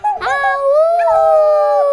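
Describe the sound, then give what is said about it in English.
A person imitates a wolf howl with one loud, sustained wavering cry that rises in pitch and holds steady for about two seconds, with no other talking. “So you're gonna change into a wolf right now and it's howl like, back.”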